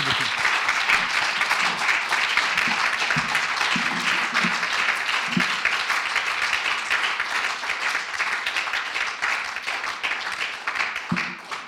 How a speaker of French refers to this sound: Merci encore infiniment. On va s'applaudir une nouvelle fois.